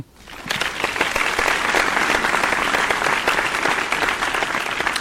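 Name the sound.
applause sound effect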